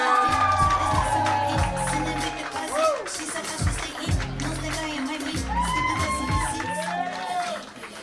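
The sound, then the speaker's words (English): A loud, sustained roar from a comedy show audience welcoming the next comedian, with cheering, whooping voices and clapping blended into a dense wash of noise over a thumping low beat, continuing steadily throughout. “So why don't you start clapping right now? little louder, little louder. Go crazy”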